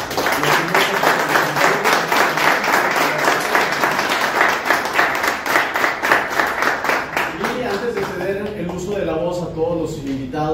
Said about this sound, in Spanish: Pues muy bien, una vez finalizado el debate, pedimos, damos un fuerte aplauso a...